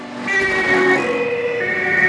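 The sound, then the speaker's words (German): Loud emergency sirens wail continuously amid rumbling traffic as three emergency vehicles speed past one after another around a street corner by an ice cream café: a large red one, a smaller white one with a red stripe and a small green-and-white one. Their steady tones shift pitch slightly. No one speaks. “Plötzlich biegen nacheinander drei schnelle Autos mit quietschenden Reifen um die Straßenecke.”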